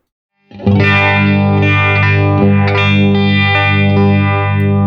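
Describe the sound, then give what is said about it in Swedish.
An electric guitar chord rings out through a phaser pedal set to its script mode, which gives slightly less feedback, sustaining loudly with a slow, repeating sweep that swirls through the tone for several seconds. No one speaks. “Och eh, det, det, som, det som händer är när med script, när man trycker i den, mm. då får man lite mindre feedback.”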